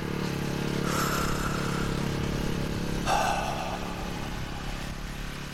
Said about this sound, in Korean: 우편 배달부는 유미숙의 집 앞에 오토바이를 세운다.